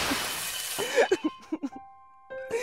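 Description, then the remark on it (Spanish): A loud crash of breaking crockery as plates are hurled and shattered, followed by a quick series of sharp clinks and ringing shards settling. “Abofeteó a la mucama y le tiró los platos y el agua hirviendo del café encima.”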